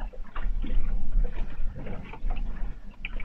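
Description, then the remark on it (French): Sea water sloshes and laps in soft, irregular splashes against a boat's hull, heard from inside the cabin at night while the boat lies in a sheltered bay, with a low, muffled rumble underneath. “On entend, on entend la mer contre la coque dans la cabine.”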